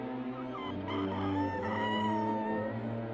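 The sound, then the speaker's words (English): A bird calls with a harsh, drawn-out, throaty cry that carries on steadily for a few seconds, fairly loud, with no talking over it. “It's just a bird. It can't answer you.”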